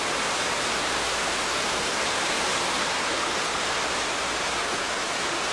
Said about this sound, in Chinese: 我们来一起享受，享受瀑布的净化，它所带来的净化的力量。我们一起来观想起来，眼前有个很美的瀑布。